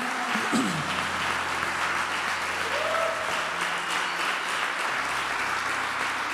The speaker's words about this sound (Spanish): Si está aplaudiendo a mí, es demasiado, pero yo creo que el Señor se merece un aplauso de honra.